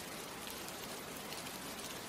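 Steady rain pours down in a dense, even hiss, with countless drops pattering on a surface and no break or variation through the short stretch.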